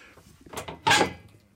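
A heavy, fireproof ship-style steel bunker door is opened: a short clunk, then a louder grinding scrape with a brief metallic squeal, quickly fading to quiet. No one speaks.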